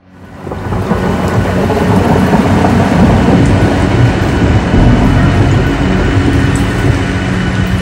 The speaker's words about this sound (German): Es, regnet ohne Ende.